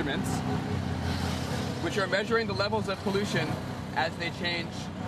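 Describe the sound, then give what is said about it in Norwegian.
The engine of an open three-wheeled auto-rickshaw drones steadily amid busy street traffic of other rickshaws, cars and buses in New Delhi, India, while people talk loudly over the continuous rumble. The rickshaw is carrying equipment that measures air pollution exposure. “Med sitt eget forskningslaboratorium i baksetet kjører den amerikanske forskeren rundt i New Delis svært trafikkerte gater.”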